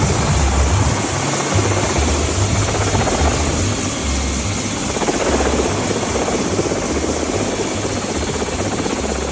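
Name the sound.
helicopter flying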